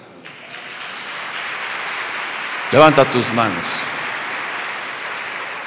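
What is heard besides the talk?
audience applauding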